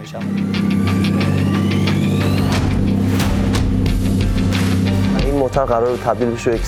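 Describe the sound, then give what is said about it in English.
A car engine runs loud with a steady low throb and some rattling clicks, its pitch shifting slightly; near the end a man starts speaking over it. “Just throw in the motor from uh, that 2000 Corolla.”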